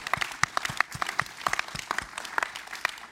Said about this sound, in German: Lass mal einen Applaus für Jesus geben.